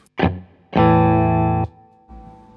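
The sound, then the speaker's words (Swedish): An electric guitar with a fairly clean sound, like an always-on boost, plays a short stab and then a sustained chord, rich in harmonics, cut off abruptly, followed by a softer low note. No one speaks. “Pollen, pollen, det här ljudet som var på där, som var ganska så här cleant, mer som en, ja men jag vet inte, någon typ av så här, always on boost eller någonting.”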